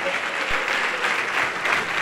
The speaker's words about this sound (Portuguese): Vem aqui para frente e vamos aplaudir mais ao nome do Senhor Jesus.